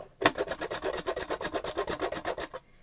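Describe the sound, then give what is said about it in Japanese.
A carrot is grated on a fine grater in quick, steady strokes, each pass giving a bright rasping scrape, about fifteen in a row with no voices. “これ細いですねちょっと外してもうちょい太いやつつも山芋おろす時くらいしか使ったことがない新しい音”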